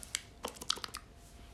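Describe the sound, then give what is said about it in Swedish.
A crisp, juicy crunch of someone biting into cold watermelon: a quick cluster of short crackly snaps over about a second, fairly quiet, with no voices. “kall vattenmelon som är så här krispig. Du tar en tugga och det, det låter så här.”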